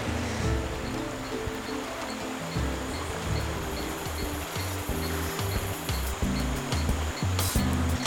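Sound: flowing river water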